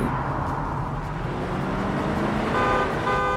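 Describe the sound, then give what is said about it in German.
A Mercedes car speeding at nearly 100 km/h toward the Alma tunnel, chased by paparazzi on motorcycles and scooters, roars past with steady rushing road noise, and near the end several car horns blare in sustained, overlapping honks. No one speaks. “Verfolgt von den Paparazzi auf Motorrädern und Rollern, rast der Mercedes auf den Alma-Tunnel zu.”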